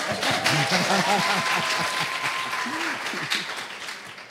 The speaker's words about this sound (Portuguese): Palma para todo mundo, né, gente?